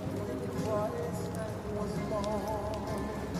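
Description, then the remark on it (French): Horse hooves clip-clop steadily, mixed into a busy background with people talking over the top. “Le point commun de toute la famille, c'est le cheval. On est tous cavaliers, on est tous acrobates à cheval, ça c'est vraiment une des spécialités de notre famille.”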